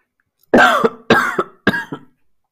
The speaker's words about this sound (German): Du beginnst zu husten.